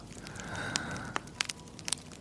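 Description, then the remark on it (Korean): A fire crackles in a fireplace, with sharp irregular pops and snaps over a steady low roar and hiss, sounding warm, with no voices present. “벽난로도 있네 조금만 가까이 가볼까?”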